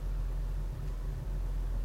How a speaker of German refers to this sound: Ein Auto. Ein Taxi. Es hat abgeblendete Scheinwerfer. Fährt langsam. Hält.